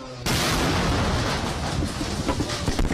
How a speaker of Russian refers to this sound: Это звук от взрыва ракеты, которую выпустил дрон.